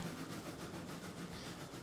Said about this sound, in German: Nur eine Handvoll Leute steigt hier mit aus und der Zug setzt sich wieder in Gang.